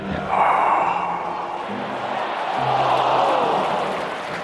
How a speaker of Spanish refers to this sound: de vez en cuando sentíamos las aclamaciones de, la de una cancha.